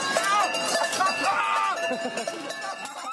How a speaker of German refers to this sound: Und die haben alle eine Glocke unten dran. Also halt am Gürtel. Und das klingt dann. Versteht man eigentlich nichts außer das, die Glocken.